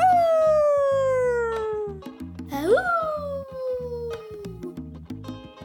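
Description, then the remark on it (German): A human voice imitates a wolf howling as a vocal warm-up game for children, in long, sliding tones that drift downward, then rise sharply and fall again, loud over a steady rhythmic backing beat. “Zuerst fangen wir an, wie ein Wolf zu heulen.”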